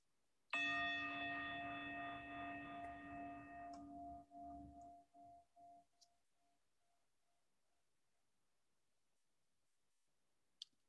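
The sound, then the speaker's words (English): A single meditation chime is struck once and rings out clearly, its shimmering, gently pulsing tone fading slowly over several seconds into silence, followed by a faint click. “As we listen to the chime, let us remember our connection to each other and the world around us.”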